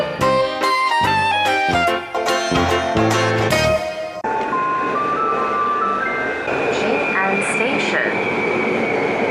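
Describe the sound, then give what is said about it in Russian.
A train on the new circular line of the Taipei metro running: a bright multi-note electronic chime melody plays first, then gives way to a steady loud rumble of the moving train with faint whining tones. “Дорогие друзья, если вы помните, на прошлой неделе мы с Иваном Юмином начали рассказывать вам о новой кольцевой ветке тайбэйского метро.”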